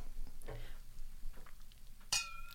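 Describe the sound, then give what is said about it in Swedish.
Two Iittala glasses touch in a toast, a single bright clink near the end, leaving a clear ringing tone that lingers and fades. Before it come faint soft knocks and handling noises, with no talking. “Det är inte ridelglas men det är Itala-glas. Det, det lät fint.”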